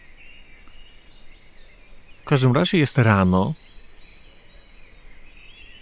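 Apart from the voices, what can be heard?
birds singing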